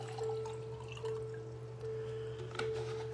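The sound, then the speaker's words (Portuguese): Water trickles and splashes into a glass for a few seconds as someone refills their cup to drink, with a couple of sharper drips near the end, over a steady low electrical hum. “Deixa eu beber um pouquinho de água, vou encher mais o meu copinho de água, tá aqui.”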